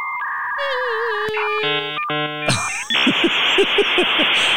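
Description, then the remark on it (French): A dial-up modem connecting over a telephone line: dial tones, a warbling carrier whistle, stepped tonal chirps, then a harsh hissing screech with rhythmic pulses, loud with no talking. “On entendait ça quand le modem se branchait à la ligne téléphonique, en fait.”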